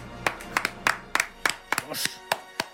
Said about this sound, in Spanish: Vaya ovación, ¿eh? Te quejarás. ¡Qué maravilla!